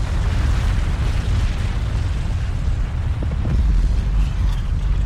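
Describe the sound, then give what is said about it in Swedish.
A powerful volcanic eruption blast from a crater roars continuously, a second and much louder bang, a deep booming rumble filling the whole recording with heavy low-end power, swelling even louder near the end, with no voices present. “Men efter bara några sekunder hörs ännu en smäll och den här är mycket högre.”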